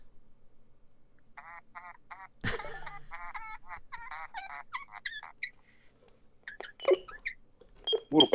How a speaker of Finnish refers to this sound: patterit loppuu mun synästä. Se vaan para- ei, se vaan äänet paranee, kun patterit heikki